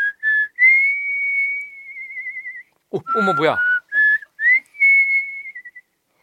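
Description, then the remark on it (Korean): Someone whistles a lilting tune in clear, sustained notes with a warbling trill, broken briefly by a short exclamation from another voice before the melody resumes. “그치, 그리고 삼촌이 불던 휘파람 소리.”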